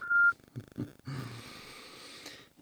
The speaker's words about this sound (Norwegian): Velkommen til mobilsvar fra Telenor. Vennligst legg igjennom beskjed etter pipetonen.